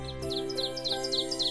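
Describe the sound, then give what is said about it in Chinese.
Small birds outside the window chirp in a quick, rhythmic run of about eight high, bright tweets, repeating steadily over a soft, sustained low tonal hum. “窗外的鸟叫着，叽叽喳喳。”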